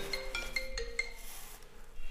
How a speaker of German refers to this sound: Übrigens, auch oh, jetzt klingelt noch mein Handy.